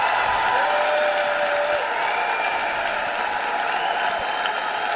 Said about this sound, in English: Big applause. USA, USA, USA, USA.